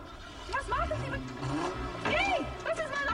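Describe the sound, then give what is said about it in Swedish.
A GTV 6 car engine revs hard and accelerates away across a German cobblestone square, its pitch climbing and dropping across a few loud surges, with some muffled voices mixed in underneath. “Han drar iväg på det här tyska kullerstenstorget men upptäcks omgående av tysk polis i en BMW och en BMW motorcykel.”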